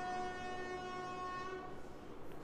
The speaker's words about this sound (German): Also hup doch nicht die ganze Zeit so rum. Regt mich das auf, Leute. Ich sag's euch. Ich versuch's ja schon immer. Also das, also ohne Scheiß, das ist doch. Also, was, was soll das? Was soll das mit diesem Hupen?